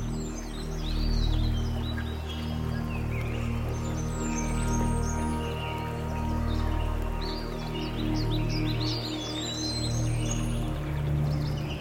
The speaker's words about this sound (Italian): ritorna ad ascoltare il bosco e il ruscello intorno a te. Percepisci i suoni e i movimenti dei rami e dell'erba e della vita che vive all'interno di questo bosco. il fluire dell'acqua.